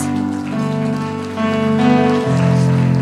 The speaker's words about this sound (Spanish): Le damos un aplauso a Dios por sus vidas.